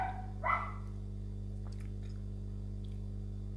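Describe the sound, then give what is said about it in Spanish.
A dog gives a quick pair of barks right at the start as it runs off, moderately loud. Then only a steady low hum remains, with no talking. “Mm, ahí se huyó el perro, ay Dios.”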